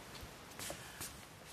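A couple of soft, rustling footsteps of someone walking through a garden, spaced about half a second apart, fairly quiet against a faint background hiss, with no talking.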